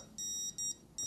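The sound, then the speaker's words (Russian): A detector device beeps three times at the second of its three volume levels, moderate short steady electronic tones with brief gaps between them, heard alone with no talking. “Второй уровень громкости звучит вот так.”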